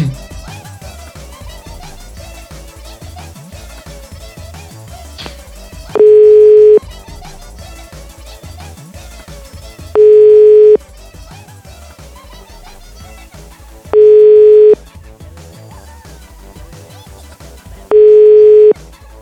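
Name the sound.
telephone call ringing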